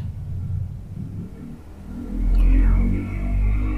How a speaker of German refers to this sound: Sorry, da war gerade ein Motorrad.